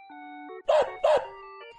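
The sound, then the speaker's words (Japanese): A dog barks twice in quick succession, loud, over a steady electronic tune with sustained synth notes playing underneath. “今さっき森の中でこのワンちゃんを見つけたんだけど、モンスターに囲まれてたわよ。”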